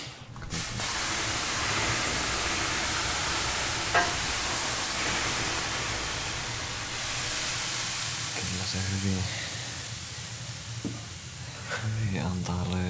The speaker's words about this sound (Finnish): Tärkkilän saunan sisäpuolelle. Kun on valettu höyrysaavi, joka porisee. Tuntuuko se, että löylyä irtoisi?